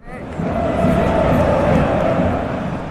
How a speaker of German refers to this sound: Einen Monat lang jubelten und pfiffen Sportbegeisterte aus aller Welt in den brasilianischen Fußballstadien.